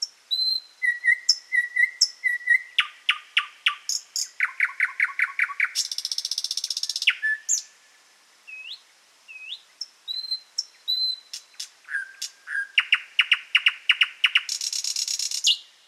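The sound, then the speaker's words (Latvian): A nightingale sings alone in spring, loud and varied: pure drawn-out whistles, rapid repeated chattering notes and harsh buzzy trills in quick succession, with brief pauses between phrases. “Jā, Lakstīgala kā galvenā solista droši vien ierodās.”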